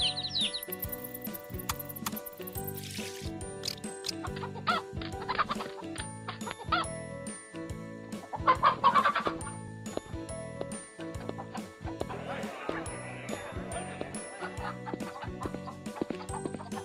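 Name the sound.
chickens clucking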